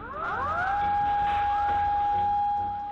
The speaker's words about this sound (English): And then the sirens started going off. A tsunami was on the way.